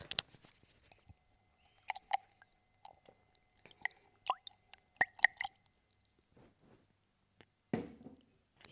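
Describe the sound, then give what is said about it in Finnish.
Someone drinks water from a water bottle during a water break: wet sips, clicks and swallowing sounds come in short irregular bursts, ending with a louder gulp, with no talking. “nyt on vesitauko. Minulla myös.”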